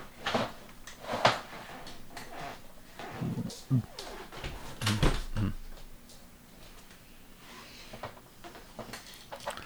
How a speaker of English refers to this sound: Sorry. Let me shut this door because it, keeps yeah. it keeps squeaking. Hold on.